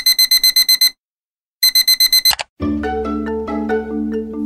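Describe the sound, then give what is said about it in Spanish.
An electronic alarm clock beeps in two loud bursts of rapid, high-pitched pulses separated by a short silence, then abruptly gives way to a melodic musical passage. “Suena el despertador.”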